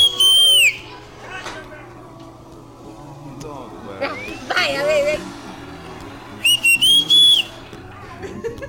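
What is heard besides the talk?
person whistling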